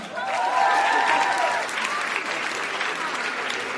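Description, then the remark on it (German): Steady audience applause with dense, continuous clapping throughout, joined briefly by a few cheering voices near the start before settling into even clapping, applause for those who have already dared to come forward to sing. “Ein Applaus für all diejenigen, die sich schon getraut haben.”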